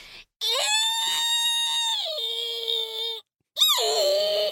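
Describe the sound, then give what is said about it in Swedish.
A voice imitates the screeching wheels of an overnight train swaying through every small curve: a long, loud, high-pitched squeal that holds steady, dips slightly, breaks off, then returns in a shorter second squeal. “Och i varje jävla liten, liten sväng så låter det”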